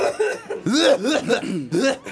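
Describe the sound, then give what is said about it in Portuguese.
An old man clears his throat and coughs in several rough, voiced bursts in quick succession, fairly loud, with no talking. “Não, porque tem um velho aqui com um pigarro aqui que tá um inferno.”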